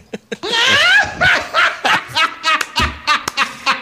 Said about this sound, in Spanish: Oye, Tox, búscame la risa malvada de ….